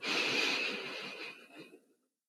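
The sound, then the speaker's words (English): A slow, deep inhale drawn in through the mouth during a guided relaxation breathing exercise, breathy, lasting about two seconds before tapering off into silence. “And do that again, inhaling.”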